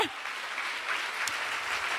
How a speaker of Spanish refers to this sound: Si le vas a dar el aplauso al Señor.